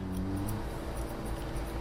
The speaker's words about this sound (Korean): 그저 척 한번 보고 가위질을 시작합니다.